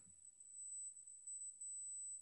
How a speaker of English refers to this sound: No, it's not an echo. It's like a feedback type beep, but we're good. Go ahead. Oh, really? Yeah, it's a small beep.